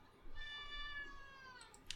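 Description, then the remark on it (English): A cat lets out a single loud, drawn-out, wavering meow that starts abruptly and trails off over about a second and a half, followed by a faint click. “I don't know if you heard the cat screaming at me.”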